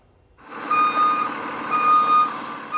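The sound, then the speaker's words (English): A school bus, the first one Tsawwassen Shuttles Incorporated got, rumbles while its backup alarm sounds a few long, steady beeps at an even pace as it reverses; no one speaks. “Well, this is our very first school bus that we ended up getting.”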